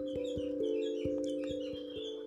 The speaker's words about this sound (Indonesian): Burung berkicau pip pip pi